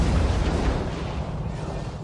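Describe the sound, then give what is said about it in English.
A loud, sustained low rumble of video game thunder, dense and booming across the full two seconds with steady intensity and no clear breaks. “wow thunder That's thunder really loud.”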